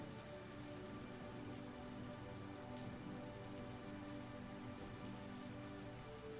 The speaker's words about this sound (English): These drops that fall from the sky, these sparkling raindrops.